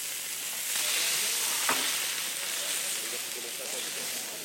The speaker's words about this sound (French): Voilà, vous pouvez découvrir le crépitement de la plouma qui grille à la plancha.